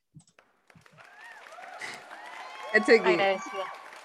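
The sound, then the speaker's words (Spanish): A crowd bursts into applause mixed with whoops and cheering voices, building from a few scattered shouts into a loud, lively ovation near the end. “Encuentro que te, mereces un aplauso nuevamente.”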